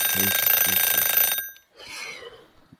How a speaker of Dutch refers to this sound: God, daar gaat de wekker alweer.